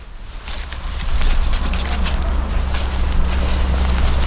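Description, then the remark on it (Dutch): Footsteps of people walking back push through thorny, prickly bushes, with irregular crunches and rustling brushes against branches over a steady low outdoor rumble, fairly loud, with no one speaking. “we lopen nu terug tussen de prikstruiken door.”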